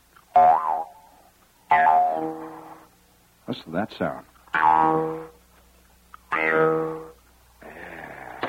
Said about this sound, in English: And now, the larger one, also an Austrian Jew's harp.